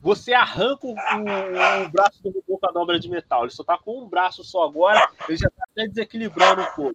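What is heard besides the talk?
dog barking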